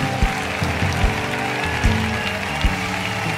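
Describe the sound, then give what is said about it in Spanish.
An audience applauding in a dense, steady wash of clapping, with strong rhythmic beats landing roughly every second throughout. “Y quiero que se escuche un aplauso.”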